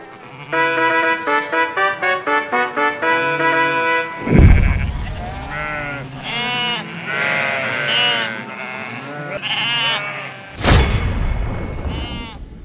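Sheep bleat repeatedly and loudly, their wavering, quavering cries overlapping, framed by a quick run of rhythmic tones at the start and two heavy booming hits.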